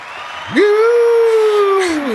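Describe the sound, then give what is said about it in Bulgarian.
An audience cheers with a loud, drawn-out scream that rises sharply and holds high for over a second, over a steady bed of crowd noise, used as a sound effect for a thank-you segment. It is brief. “И така, тук публиката почна да пищи, когато дойде време за благодарности.”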